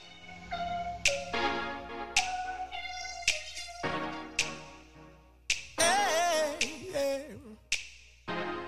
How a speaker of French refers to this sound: On prend une petite pause pour partir en musique